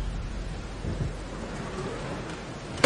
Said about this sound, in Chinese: 这看着窗外哗啦哗啦的雨打在被风吹得摇摆不定的树上。